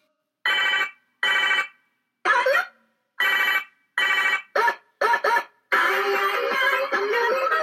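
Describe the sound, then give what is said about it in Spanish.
A toy cellphone rings with a string of short, bright electronic trills in a quick steady rhythm, then breaks into a longer continuous jingle, loud with no talking. “celular. ¿Un celular de juguete?”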